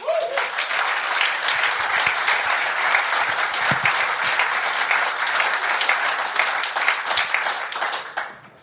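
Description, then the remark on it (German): Sustained applause from an audience at a live event in a Living Hotel, a dense, steady patter of many hands clapping for about eight seconds before fading out at the end. “Und ich denke, das ist mal ein Applaus wert, oder?”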